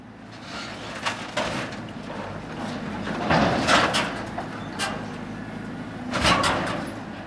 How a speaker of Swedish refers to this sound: Så där låter det när den orangea arbetsmaskinen med larvfötter och gripklo jobbar med att ta isär taxistationen vid Borgå torg. Yttertaket ser ut att vara borta och en del av huset har redan försvunnit ner i containrar som står bredvid.